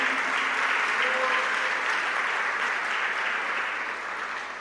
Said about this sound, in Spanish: dar un aplauso a Cristo, hermano, porque Él vive para siempre.